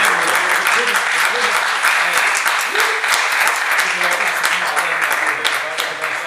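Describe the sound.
A crowd applauds steadily for several seconds, dense overlapping claps at a constant loud level, with faint voices mixed into the clapping.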